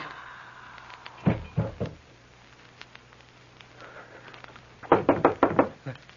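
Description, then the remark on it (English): Knocking on a door: a group of three raps, a pause, then a quicker burst of about five firm knocks, loud over a quiet low hum. “It's the door.”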